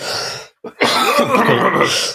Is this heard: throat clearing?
yes